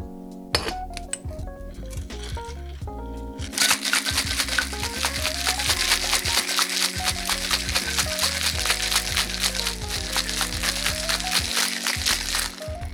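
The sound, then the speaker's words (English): Ice rattles hard inside a cocktail shaker holding Chambord and pineapple juice for a French martini, in a fast, steady rhythm for several seconds after a few brief clinks of the lid going on, with soft music playing underneath. “And then we're going to put on the lid there and then shake for about 20 seconds.”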